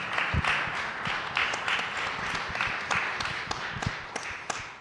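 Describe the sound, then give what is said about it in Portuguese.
Steady audience applause at a session of the Conferência de Lisboa for José Carlos Machado of IPATIMUP, a dense crackle of many hands clapping at an even level, with a few sharper individual claps and low thumps standing out. “uma salva, uma salva, salva de palmas para o José Carlos Machado.”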